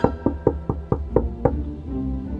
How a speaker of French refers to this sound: Les enfants marchèrent longtemps, et ils arrivèrent enfin devant une maison où brillait en effet une chandelle ils toquèrent à la porte.